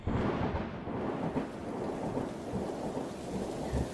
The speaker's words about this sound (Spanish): Resulta que había una tormenta, pero no cualquier tormenta, era una tormenta violenta, terrible, y estaba surgiendo esta tormenta detrás de las montañas. Los truenos reventaban con una potencia espantosa y se veían en distintos sectores del cielo.